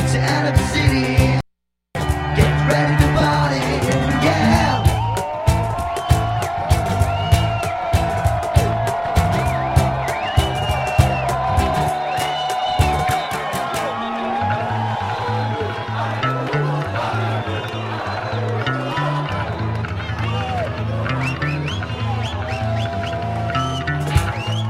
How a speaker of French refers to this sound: Et la foule que t'entends, c'est Montréal en manif, ça. Ouais. Printemps érable, c'est pas fini, mon frère.